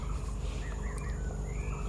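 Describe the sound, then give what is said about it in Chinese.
Several birds chirp and call in short, rising and falling notes, overlapping against a steady, dense background hiss. Nobody speaks. “这里好多鸟叫哦！”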